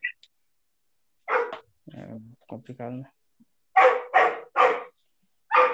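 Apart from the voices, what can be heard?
dog barking in background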